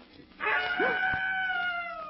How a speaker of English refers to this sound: That screech owl.